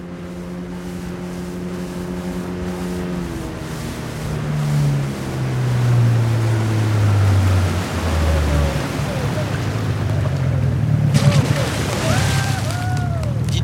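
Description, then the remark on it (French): A motorboat towing a water skier, its engine droning steadily, its pitch sliding lower as it passes, over a wash of water and wind, with a few high chirping sounds near the end. “Ah, le ski nautique, c'est chouette”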